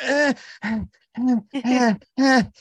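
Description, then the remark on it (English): A tired man imitates exhausted, straining groans: five drawn-out, moaning vocal bursts in quick succession, fairly loud, like a struggling animal that is either being born or dying. “you know, and it sounds like, a, you know, like a struggling animal that's either being born or dying.”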